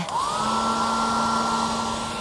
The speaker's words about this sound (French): il se fit plaisir avec un sèche-cheveux volumisant. Pour avoir un style au poil.